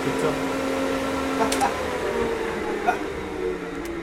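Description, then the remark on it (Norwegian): A restored 1941 engine driving a 1940 fan, in a museum that replicates a bunker, runs with a steady, even mechanical hum and a low droning tone throughout, while people laugh briefly over it. “så her er vi vifte fra 1940, og så er motor fra 41”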